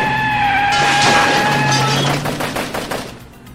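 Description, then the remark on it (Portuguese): A car races off a sidewalk during a chase with a loud, sustained tire screech, engine roaring underneath, then a quick series of sharp bangs as the noise fades away. No one speaks. “Para Dona Clotilde, que foi projetada para o alto quando meu carro passou veloz da calçada”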